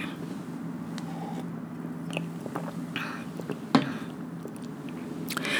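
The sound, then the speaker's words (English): Someone drinks water: a few soft sips and swallowing sounds with small wet mouth clicks over a steady low background hum, with no talking. “Let me drink some water.”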